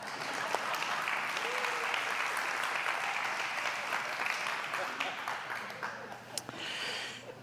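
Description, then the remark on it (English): An audience claps steadily in a dense, sustained wash of applause that stays fairly even throughout, with a few sharper individual claps poking out near the end. “A lot of people applaud it this time, just so I'll move on to the next point.”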